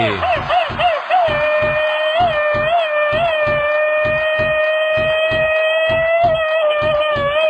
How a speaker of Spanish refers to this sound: Bombos, platillos, este grito ametralladora, cohetes.